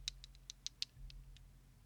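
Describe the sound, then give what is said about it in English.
Small dice from a dice bag tick lightly against a metal ring, about eight or nine quick, uneven clicks that are sharper early on and fade toward the end, over a faint low hum. “Little little ticky tick you there. You can hear that, yeah.”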